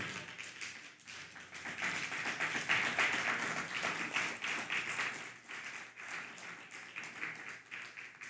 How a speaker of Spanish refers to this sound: Ahora sí, buenas tardes. Bienvenidos, un fuerte aplauso.